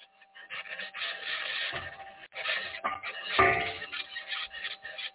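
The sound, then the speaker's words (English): The six aluminum wheels of the Perseverance rover scratch and grind steadily over the rough surface of Mars, a continuous muffled rasp with brief dips and one sharper clank from the suspension partway through, fairly loud. “scratching is the sound of the wheels in contact with the surface of Mars.”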